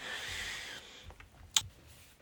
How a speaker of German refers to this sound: Ja, ansonsten haben wir hier, wie gesagt, ein klassisches äh, Tastatur-Layout. Ich drücke jetzt einfach mal drauf. Ja, der Hub ist gut, also der Tastenhub.